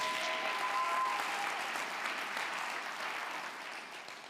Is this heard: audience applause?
yes